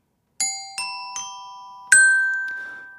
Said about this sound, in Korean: 요거는 그냥, 어, 보너스였습니다. 그냥, 어, 이 답변에 대한, 예, 딩동댕동이었기 때문에 요거는 이제 정답 오답 요런 건 아니고요.